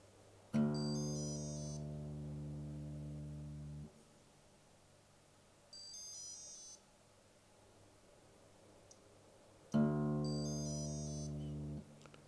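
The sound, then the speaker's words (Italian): An electronic guitar tuner beeps in three bursts of rapid high pips, two of them joined by a loud, buzzy low drone lasting a few seconds, with quiet pauses between, signalling that the loosened low E string is slack and needs tightening. “Questo suono mi dice che la corda è lenta e va tirata.”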